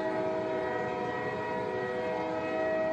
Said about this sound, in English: Can it wait? I'm on a train right now.